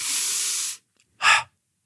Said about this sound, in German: der Fokus ist in der ersten Phase auf tief einatmen, relaxed ausatmen. Das hört sich ungefähr so an.